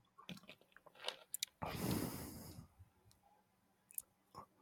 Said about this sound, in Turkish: Cold brew içtim bu arada. Ne Ses geldiyse kusura bakmayın.